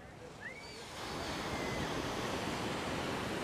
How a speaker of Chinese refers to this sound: 太平洋的大浪，这种浪温哥华是没有的，而且今天呢，算是没什么风。